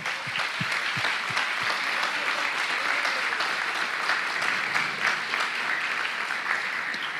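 An audience applauds to the Lord during a sermon, a dense wash of many hands clapping at an even, sustained level throughout, with no talking over it.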